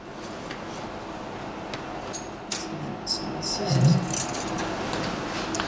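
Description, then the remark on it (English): Long metal Nelson surgical dissecting scissors with a long curved, rounded end being handled: a few light, scattered metallic clicks and clinks, with a brief cluster of louder taps midway, over a soft steady background hum. “So looking at some longer scissors now, these are called uh, Nelson scissors, they're uh, very much like the uh, the other scissors we saw.”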